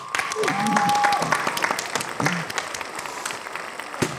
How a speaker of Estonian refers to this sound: tere tulemast meile stuudiosse, aplaus.